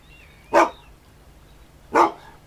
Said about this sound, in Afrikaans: Soos jy kan sien, is ek redelik groot van postuur, selfs vir 'n deense hond. Ek is amper 2 meter lank as ek op my agterpote staan. Antwoord Just Nuisance. En hy gaan staan se muur op sy agterpote en blaf hard.